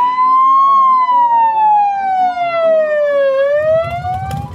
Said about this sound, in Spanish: ¿Una ambulancia?